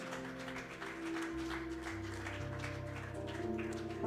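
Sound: audience applauding loudly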